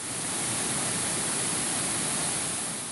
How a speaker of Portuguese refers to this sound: Na região da Pampulha, o córrego virou um rio de forte correnteza.